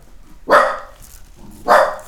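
A dog barks twice after hearing a noise, about a second apart, each bark loud and sharp, with a quiet background between them.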